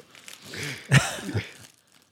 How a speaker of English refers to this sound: No, that's just the wrapping paper.